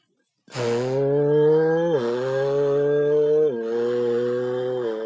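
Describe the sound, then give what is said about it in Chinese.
A loud, buzzy engine-like drone made by voicing into the opening of an unsqueezed drink can runs steadily for several seconds, dipping in pitch twice as it revs. It is an imitation of a car engine rather than a real car, with no talking. “不同的车，不同的引擎，它的声音本来是不一样的。”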